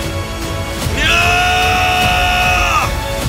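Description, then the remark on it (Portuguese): A person lets out a loud, sustained, strained yell lasting nearly two seconds, after a moment of low background noise, then cuts off abruptly. “E mais uma vez eu vou gritar para você ouvir.”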